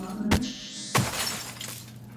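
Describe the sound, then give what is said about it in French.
A television in a hotel room being smashed with fists: a sharp impact at about 0.3 s, then a second heavy crash near 1 s that bursts into glass shattering, with bright tinkling debris trailing off for about a second. “Le soir, dans ma chambre d'hôtel, j'éclate la télé à coups de poing.”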